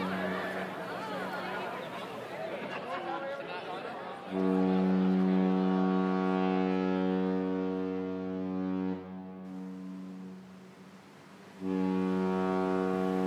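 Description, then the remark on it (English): A deep, loud ship's horn blasts in two long, steady tones as a ship sets sail from a dock, following a stretch of cheering and lively crowd chatter as people wave goodbye, fading under the horn. “Everyone cheered and waved goodbye as the ship set sail.”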